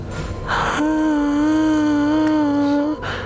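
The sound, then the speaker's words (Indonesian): A voice imitates a woman crying, holding one long, steady, high wail for about two seconds after a brief breathy gasp, fairly loud, with no talking. “cewek gimana suaranya ya kayak nangis”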